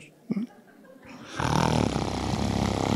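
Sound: voice imitating snoring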